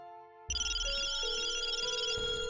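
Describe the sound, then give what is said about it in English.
Two phones go off at once: an electronic ringtone bursts in loudly and keeps ringing, a bright layered melody of high synthetic tones with a low rumble beneath, no voices present. “Both their phones lit up with an urgency they had never felt before.”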